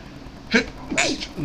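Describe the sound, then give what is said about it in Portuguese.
A single sharp sneeze bursts out, a quick breathy explosion followed by a short trailing exhale and faint vocal sound. “Desculpa. Saúde.”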